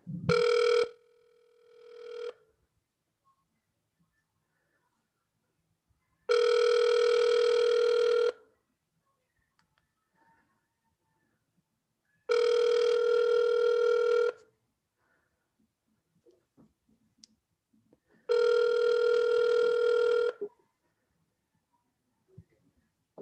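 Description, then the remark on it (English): An outgoing phone call to a radio station in San Francisco rings through a speakerphone, with a short chirp and then three long, evenly spaced ringback tones separated by silence. The tone is steady and moderately loud, and no one speaks. “So we're calling La Raza 93.3 in San Francisco. Here we go. I'll put it on speaker too.”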